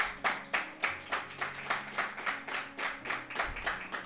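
A church audience claps together as applause for God, the king, in a steady, even rhythm, about three sharp claps per second, with low sustained musical tones humming underneath.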